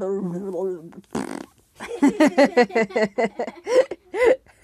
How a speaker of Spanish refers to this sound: Seguramente escuchó cómo le retumbaban las tripas.